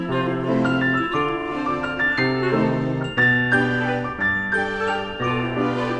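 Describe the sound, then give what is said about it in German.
A bright, tinkling melody of piano-like notes mixed with glockenspiel chimes plays steadily over sustained tones, giving a playful, toy-like music-box feel with no voices. “wird die Hauptmelodie von einer Art Mischung aus Piano und Glockenspiel gespielt, das klingt dann wie ein Kinderspielzeug.”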